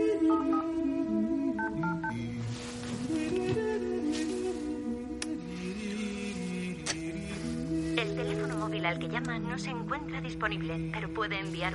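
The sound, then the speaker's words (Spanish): A quick series of electronic keypad beeps from a mobile phone being dialed by someone seated on a living-room sofa, reading the number from a paper. Short steady tones step in pitch, heard over a busy background of music and a voice. “Sentado en un sofá del salón, marca en su móvil mirando el papel.”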